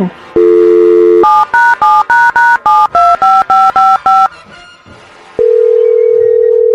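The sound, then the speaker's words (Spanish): A phone number is dialed: a brief dial tone, then about a dozen quick DTMF keypad beeps in a brisk, steady rhythm, followed by a long steady tone. Clear, with no talking. “Vamos a marcarle otra vez.”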